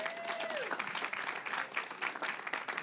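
A crowd applauds steadily for the volunteers, many hands clapping in a dense, continuous burst that stays fairly loud throughout, with a brief falling tone near the start.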